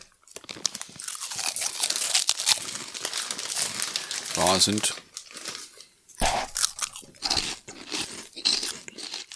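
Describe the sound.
Loud crunching of crispy snacks from a bag, a dense run of crackly bites and rustles that continues for several seconds, with a short spoken phrase breaking in partway through.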